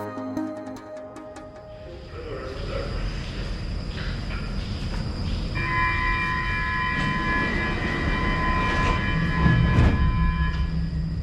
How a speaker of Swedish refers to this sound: Ljuden i tunnelbanan har alltid varit kusliga för mig. Det ensliga gnisslandet. Tågens pumpande kompressorer. Ett band av frustande metallhästar ekande genom underjorden.